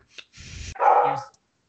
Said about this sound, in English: There's the dog. Sorry